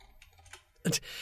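Typing on a computer keyboard: a few quick key clicks in an irregular rhythm, ending with a louder clattering burst of keystrokes.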